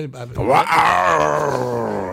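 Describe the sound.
A person lets out a loud, drawn-out vocal roar lasting a couple of seconds, rising sharply then holding steady and strained, a human voice imitating a beast's roar.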